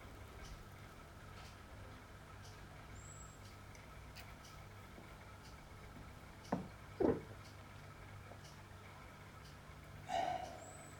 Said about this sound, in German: bei der Tassimo hört man dieses Rauschen des Erwärmens des Wassers nicht. Die Senseo rauscht ja so ein bisschen. Mhm. Aber dafür hat man dann bei der Tassimo dieses Klicken, was zu hören ist.